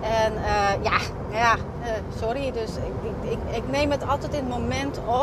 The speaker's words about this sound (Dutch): En eh, sorry voor het achtergrondgeluid, want ik zit weer in de auto.